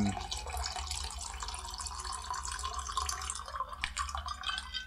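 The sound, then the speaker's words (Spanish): Someone drinking a lot of water on a very hot day, a steady wet rush of liquid with small drips and splashes lasting several seconds, fairly quiet and with no talking. “perdón, pero hoy día hace demasiado calor, así que estoy tomando mucha agua.”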